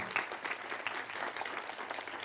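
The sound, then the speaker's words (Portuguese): Steady audience applause, a dense wash of many hands clapping at an even, moderate loudness for a couple of seconds, with no one speaking over it. “Porque aplaude Jesus mesmo.”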